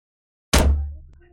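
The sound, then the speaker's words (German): A door, now fully fixed, swings shut as a sound effect with a solid thud: one sharp impact with a low resonant boom that rings out and fades, then a brief second knock right at the end. “Jetzt ist sie zu.”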